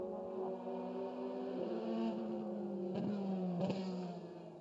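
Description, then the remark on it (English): A mid-engine, twin-turbocharged C8R race car accelerates with a dense, droning growl, its pitch climbing and then dropping at several quick gear shifts, held at a steady level with no voices. “Mid engine, of course, for the C8R, and a dramatically different sound with the twin turbochargers.”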